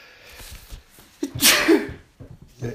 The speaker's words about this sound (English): I'm going to sneeze.